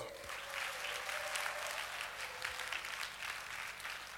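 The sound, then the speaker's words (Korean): An audience at a worship service claps together in a steady, sustained burst of applause, the dense patter of many hands filling the whole clip at an even, fairly loud level with no voices. “박수!”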